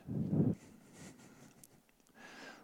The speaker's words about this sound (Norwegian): Nå puster jeg veldig tungt. Det hørte dere her. Det er sånn typisk sånn angstsymptom. at det er Litt Darth Vader over dette.